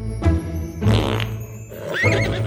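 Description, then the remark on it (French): A comic fart sound effect standing for a unicorn's fart, made of a few sputtering, buzzy low blasts, ending in a rising whinny-like squeal, loud and without speech. “Et pourvu que ton rêve dure toute la nuit, parce qu'en plus, les licornes, quand elles pètent, ça sent la lavande, alors c'est super, même en rêve.”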